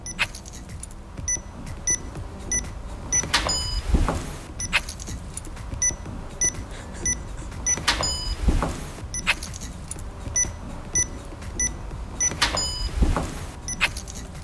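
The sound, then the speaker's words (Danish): A workplace door entry keypad chirps through quick series of short electronic beeps as a small code is typed in, each followed by a brief mechanical whir; the cycle repeats steadily every few seconds, with no voices. “One hour of vores døråbningssystem, hvor man skal taste en lille kode.”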